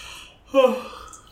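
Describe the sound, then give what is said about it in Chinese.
A single drawn-out yawn: a breathy, voiced exhale that swells suddenly, holds for about half a second, then trails off softly over faint background hiss. “直接打哈欠聊到这个话题”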